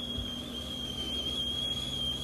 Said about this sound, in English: Come on, coffee. Brew for me today.